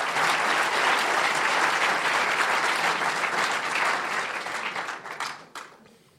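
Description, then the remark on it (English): A large live theater audience at a lecture hall in McCaw Hall, Seattle, claps steadily in a dense, sustained wash of applause that holds for several seconds before thinning out and fading near the end. “We've got a live studio audience right here, a theater audience at the Nesholm Family Lecture Hall, McCaw Hall in Seattle.”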